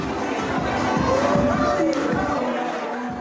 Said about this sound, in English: She's in the middle of the dance floor with a circle of guests around her. Her hips are moving to the music, she's strutting and jumping and the crowd is cheering.